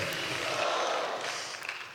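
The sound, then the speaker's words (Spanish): An audience claps together in a dense, steady wash of applause for Jesus Christ that holds for about two seconds and tapers off slightly at the end, with no voices standing out. “Denle un fuerte aplauso a nuestro Señor Jesucristo, hermanos.”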